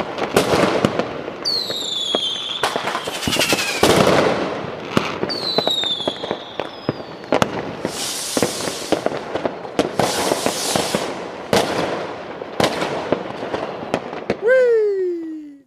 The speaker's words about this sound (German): würde erstmal sagen, dass nicht nur ihr beide, sondern auch alle unsere Hörer jetzt einfach ein gehöriges Feuerwerk bekommen